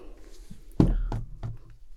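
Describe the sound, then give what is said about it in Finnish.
Four knocks on the door of the Parliament House, spaced a little unevenly; the first is the loudest and the rest grow quieter. No one speaks. “Ja kolkuttaa ovelle.”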